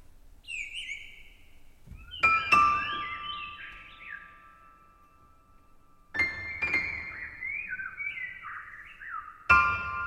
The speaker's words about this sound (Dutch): je hier hoort zijn eh, geen echte vogels, maar bandopnames van vogels. Ze komen uit een eh, klein eh, betonnen gebouwtje van 8 bij 12 meter. Twee etages hoog en een torentje erop.